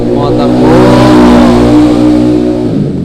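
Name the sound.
motorcycle passing by loudly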